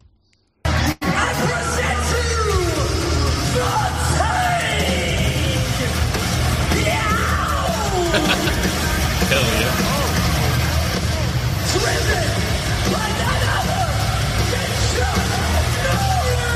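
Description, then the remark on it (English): A heavy engine rumbles steadily while a large vehicle drives very slowly over four cars, crunching them, with scattered firework explosions banging and a loud crowd and announcer voices throughout. “there's firework explosion as he drives over four cars very slowly”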